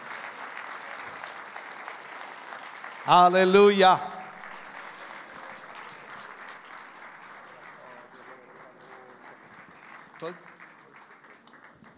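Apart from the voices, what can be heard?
loud applause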